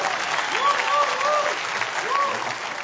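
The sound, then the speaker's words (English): An audience claps steadily in a dense, continuous burst of applause lasting a few seconds, with some brief rising and falling voice-like tones mixed in over the clapping. “You can go ahead and clap for that. That's worth clapping about.”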